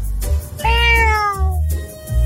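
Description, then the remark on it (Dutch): A 43-year-old man imitates a cat with one drawn-out, convincing meow, rising then gently falling in pitch, loud over a low background hum. “ik ben …, 43 jaar en ik doe een kat na.”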